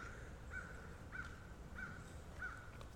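Birds calling in a dawn chorus, one call repeating four times at a steady, evenly spaced rhythm over a low background rumble, fairly quiet, with no voices.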